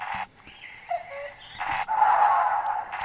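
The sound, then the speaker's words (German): A children's toy remote control, which beeps but has no real function, plays tinny TV sounds from one of its switchable sound sets: hissy static bursts and brief electronic tones that cut abruptly from one to the next, as if flipping through channels. No one speaks. “Und da ist auch so, kannst du verschiedene Soundsets durchschalten, wie zum Beispiel Fernsehgeräusche”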